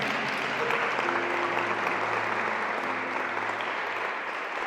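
An audience at a Christian service claps for the Lord steadily for several seconds, a dense, continuous wash of applause at an even level, with faint sustained tones, likely music, running underneath.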